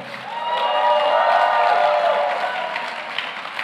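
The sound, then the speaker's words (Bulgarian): A church audience cheers and shouts together in a loud, sustained roar of many voices, jumping and rejoicing while the preacher speaks about prayer, swelling in the middle and easing slightly toward the end, with scattered clapping mixed in. “Знам, че някои от вас ни гледат и си казват, това е странно, защо скачат, защо се радват, защо викат при положение, че той човек говори за молитвата, защото тук има може би 20-30 човека, които са опитали силата на молитвата.”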